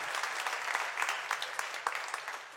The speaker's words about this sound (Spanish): Qué, eficiente nuestro staff, Un aplauso para los, los chicos que están ahí atrás.